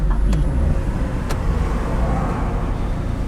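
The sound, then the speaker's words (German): A car-sharing rental car's engine runs steadily in neutral with a low, constant rumble heard from inside the vehicle, with a couple of brief clicks or knocks early on and no one talking. “Weil ich kann gerade nicht fahren mit diesem Auto.”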